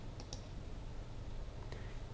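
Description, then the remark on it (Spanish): Three small, crisp computer mouse clicks, made clicking on frame 20 of layer 1: two close together near the start, then a single click after a pause, over a quiet low hum with no talking. “Hago clic en el fotograma 20, en este caso de la capa 1, hago clic ahí”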